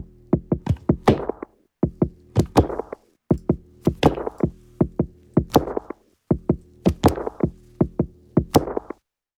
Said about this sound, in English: And then some samples as well along with that sound like this. With the organic percussion sounds like this.